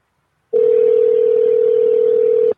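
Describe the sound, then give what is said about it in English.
A telephone dial tone hums steadily for about two seconds, loud and close, then cuts off abruptly. No voices are heard. “let's get him on the phone here and learn more about Bill Brodrick, the Hat Man”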